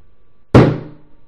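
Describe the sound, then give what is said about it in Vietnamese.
A single loud, sharp slap of a man's hand hitting a table hard in anger, with a brief low thud ringing out after the impact and no voices. “anh ta vỗ mạnh lên bàn một cái tức giận mắng”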